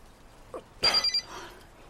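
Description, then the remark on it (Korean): A phone rings in one short burst of high, rapidly pulsing trills lasting under half a second, preceded by a faint soft knock and followed by quiet. No one speaks. The incoming call is from a sister-in-law. “왜 현수 씨한테 전화라고 난리야?”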